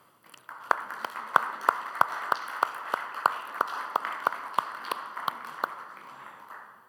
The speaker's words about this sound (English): Thank you, mothers. I want to give them a round of applause again.